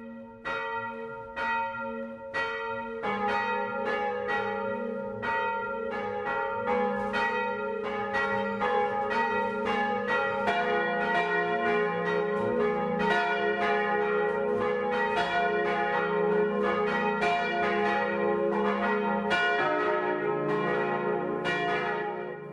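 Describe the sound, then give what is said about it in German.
The bells of the parish church in Pauluszell, Lower Bavaria, Germany, ring out the full 12 o'clock midday peal. Strikes start sparse, then more bells join in, building a dense, overlapping, resonant clangour that stays loud throughout, with no voices. “Das Mittagsläuten kommt heute aus Pauluszell in Niederbayern.”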